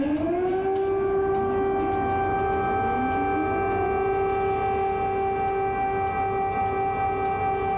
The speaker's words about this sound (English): And that was the sounds yesterday in Kiev. The sirens went off and the war was on.